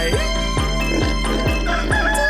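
A rooster crows over a steady, thumping electronic beat, its strained call blending with tonal music rather than standing out alone; no one speaks.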